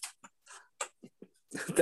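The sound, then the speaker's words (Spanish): A voice imitates a dog barking: a series of short, breathy yaps at an uneven pace, ending in a louder, longer burst of rough barking. “Sigue ladrando, perro.”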